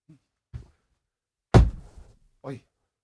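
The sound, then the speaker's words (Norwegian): A single heavy boot stamp lands with a sharp, loud thud during a left turn in military drill, followed by brief rustling; a soft shuffle comes just before it and a short voiced sound after. “Til og med, Der smalt det godt i går. smell i beinet.”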